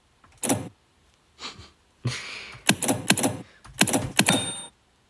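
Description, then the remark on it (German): Heavy mechanical keystrokes of a braille writer clack in irregular bursts, some single and some in quick clusters, with a faint bell ringing near the end to signal that only five characters remain before the end of the line; no one speaks. “Ja, jetzt hat es geklingelt. Jetzt haben wir nur noch fünf Zeichen. Dann ist das Ende der Zeile erreicht.”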